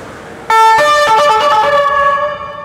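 A loud police siren blares in Vienna, its harsh tones switching back and forth between pitches for about two seconds before dropping away as it passes. No one speaks.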